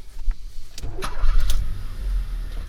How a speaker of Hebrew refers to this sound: תניע את האוטו. יאללה, תניע, נו!